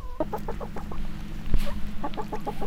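Several hens cluck in quick, repeated bursts, with a steady low hum underneath and a brief sharp knock midway through.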